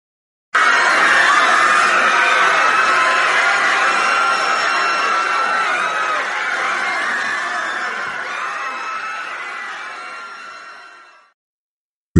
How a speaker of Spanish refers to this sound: Empiezan a oírse entonces gritos angustiados. La gente toma conciencia de que esos van a ser sus últimos instantes de vida.